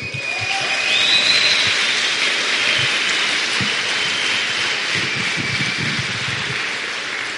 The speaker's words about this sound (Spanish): Entonces, este señor se merece, el mejor de los aplausos.